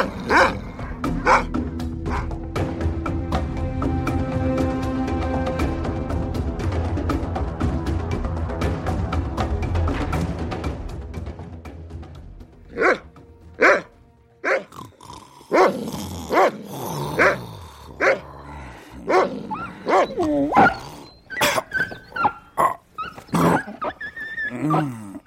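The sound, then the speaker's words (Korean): A dog barks and growls, first in a dense, continuous snarling stretch, then in sharp separate barks coming in an irregular series, loud, with no talking. “이 새끼 짖는 거 하나 못 닥치게 해서 어디 저 주인 다 깨우려고 작정했어요?”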